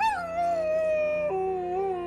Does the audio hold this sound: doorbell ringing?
no